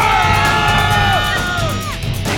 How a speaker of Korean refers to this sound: 그러다가 정경대열의 가운데가 열리면서 사복체포조들이 소리를 지르며 뛰어나온다. 진압! 진압! 가운데 열어! 와!